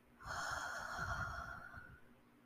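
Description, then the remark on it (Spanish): A single long, deep exhale through the mouth during a deep-breathing exercise before a meditation, a steady airy rush lasting nearly two seconds before tapering off, fairly soft, with no talking. “Inhalas y exhalamos por la boca.”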